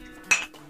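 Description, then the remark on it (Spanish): A single dull clink as two thick glass cups knock together in a toast, a short bright burst that fades quickly into a low background hum. “que, la taza es tosca porque el vidrio grueso pues, no va a sonar a tin.”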